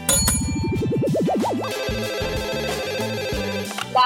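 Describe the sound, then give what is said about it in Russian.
An electronic phone ringtone plays alone as a call is placed to entrepreneurs: a rising warbling sweep followed by a bouncy repeating synth melody, loud, ending with a brief click. “в нашей рубрике «Предприниматели ищут положительную и сетную целостность» мы звоним и узнаем, как дела, предприниматели?”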